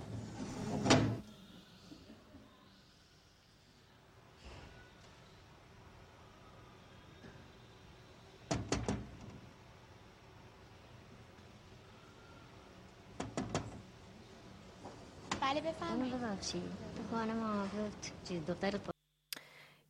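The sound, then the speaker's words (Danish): Sharp wooden knocks on a small hatch in a hospital come in short bursts, a couple of raps at a time, with pauses between. The hatch is then opened and a voice speaks briefly. “Yes, man kan høre, at der ligesom er en, der banker på en rode eller sådan en lille lue, øh, som der bliver åbnet op.”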